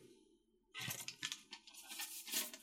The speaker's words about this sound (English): Can you hear my notes? For once, I'm using paper notes. I almost always do Google Doc notes. Wanted to go physical media this time.